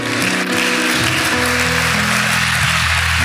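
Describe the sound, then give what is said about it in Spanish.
An audience applauds God steadily throughout, a dense, even patter of many hands, with sustained low keyboard or organ notes humming underneath. “Dele un aplauso a Dios, por favor.”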